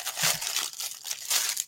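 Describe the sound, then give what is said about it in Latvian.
A plastic packaging pouch, holding a drawstring bag printed with Logitech for carrying a camera, being torn open, with a crinkly, crackling rip and bursts of rustling that rise and fall over a second and a half. Fairly loud, with no voices. “Nāk līdz šāds tie maisiņš. Nu, atrausim vaļā.”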